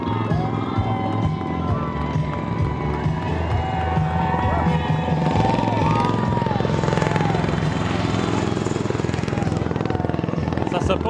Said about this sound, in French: C'est comme des hélicoptères-avions, là.